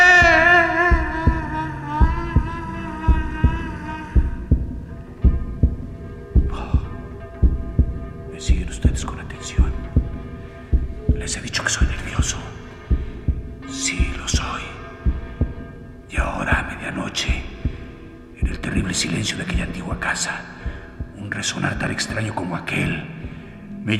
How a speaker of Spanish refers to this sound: Pero el latido crecía cada vez más fuerte. Más fuerte.